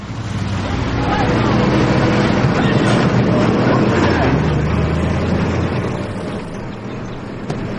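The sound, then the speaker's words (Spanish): Two heavy trucks rumble past behind a boy sitting on a swing. Their deep engine drone swells quickly and holds loud and steady for several seconds before easing slightly as they move on. “Dos camiones pasan tras él.”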